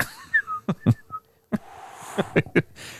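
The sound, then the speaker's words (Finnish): Birds singing: a few short, high whistled chirps and sliding notes in the first second, mixed with several sharp clicking knocks and a steady soft background hiss. “Linnutkin laulu näköjään.”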